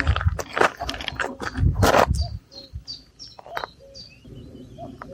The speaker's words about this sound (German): Ich weiß, ob man es nachher hört in der Aufnahme, aber man hört hier einen Kuckuck.